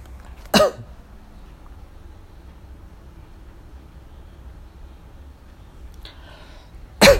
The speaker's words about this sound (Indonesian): sorry gue batuk sebentar